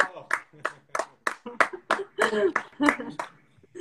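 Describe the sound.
Hands clap in a quick, fairly steady series of about a dozen sharp, bright claps, with a voice talking underneath during the middle of the burst.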